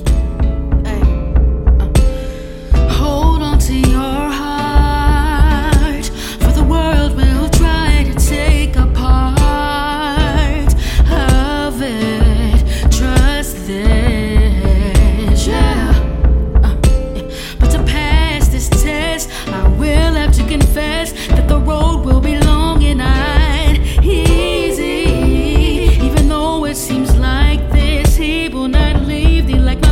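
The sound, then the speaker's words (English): The original version of the speaker's own song, from a 2011 16-track project, plays loud and continuous for the whole stretch, with a steady, punchy beat under layered melodic lines and bright, wavering upper notes. No one talks over it. “So this song is actually it's an arrangement of of, of, of an original which I made”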